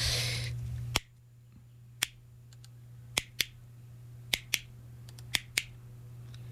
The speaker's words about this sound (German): Und ein wunderschöner Kippschalter, ähm, etwas ähm, retro designt, ähm, mit so einem Hebel aus Metall on und off. Mhm. Klappert ganz schön ein ja, bisschen hinterher.